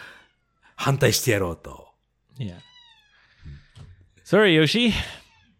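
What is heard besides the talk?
cat meowing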